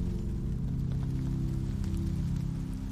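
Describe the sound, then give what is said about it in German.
Steady summer rain falls on sun-warmed asphalt, a dense, continuous patter with scattered faint drop ticks over a low, droning hum. No one speaks. “Spüre den erdigen, frischen Geruch von Regen auf warmem Asphalt.”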